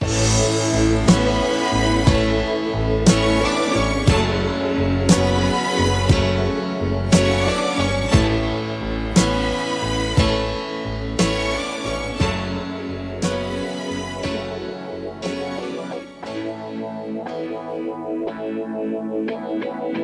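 A well-known pop song plays loudly, with a steady driving beat, thick layered instruments and effects-heavy guitar or synth textures, thinning out slightly toward the end.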